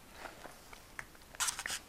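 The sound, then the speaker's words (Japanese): Quiet crunchy chewing while eating lunch, a series of short crisp bites and crunches that grow louder and denser toward the end, with no talking. “あれお昼じゃんっつってお昼食べなきゃって言ってでまあお昼ご飯がてらねこれ喋ろうかなということで今ね始めたんですよだから今日は朝昼兼用”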